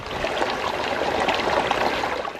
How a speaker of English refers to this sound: with the water running down